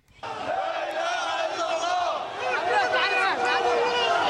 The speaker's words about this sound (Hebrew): אנחנו שומעים שם את, אה, את הקריאות של אותם אה, עשרות, אה, קרוב למאות אנשים שהתאספו, גם מניפים שם הרבה מאוד דגלים, גם של הג'יהאד האיסלאמי, גם של ארגונים אחרים במסגרת ההלוויות האלו.